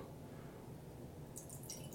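Liquid pours out in a steady, soft trickle with a splashy, dripping texture, fairly quiet and continuous for the full two seconds, with some brighter splatter toward the end. No one speaks.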